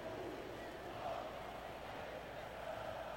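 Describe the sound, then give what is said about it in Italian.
Football fans singing in a stadium during a match involving Finland, a dense, steady wash of many voices chanting together at an even loudness, with no breaks throughout. “Cantano i tifosi, mi sembra belgi.”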